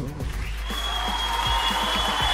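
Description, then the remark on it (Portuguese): A burst of applause swells in after a brief moment and continues steadily, a dense, loud wash of many hands clapping with no one speaking. “Não, tira o aplauso”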